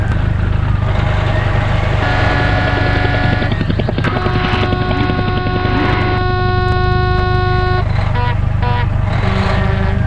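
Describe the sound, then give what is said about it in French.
Car horns honk in a traffic jam, several long sustained blasts overlapping one another over a steady low rumble of idling engines. “L'odeur des vapeurs de lithium et des bruits de klaxons de l'embouteillage étaient relativisés par les vrombissements des réacteurs des orthoptères”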